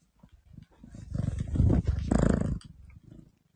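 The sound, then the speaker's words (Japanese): A cat growls with a low, rough, rumbling tone that swells louder through the middle, holds for about two seconds, then drops off. No one talks over it. “にゃーって言う言わないの。言わない。ぐるるしか言わない。”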